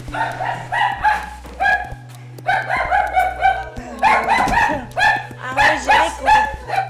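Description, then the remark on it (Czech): A young designer's small pet dog, in a house in Žižkov, Prague, barks repeatedly in quick, high-pitched yips, coming in bursts with short pauses between them, loud and with no voices alongside. “Žižkovského domu a jdeme navštívit mladou designérku a zřejmě i jejího pejska, to bude eh, vtipný natáčení.”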